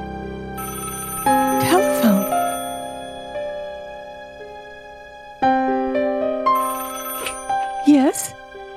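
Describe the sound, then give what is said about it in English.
An inter-cabin telephone in cabin B16 rings loudly in two long bursts separated by a pause, its bright metallic tone sustained, with brief vocal sounds rising over each ring. “still fully dressed, lies restlessly across one of the berths, her head almost touching the inter cabin telephone.”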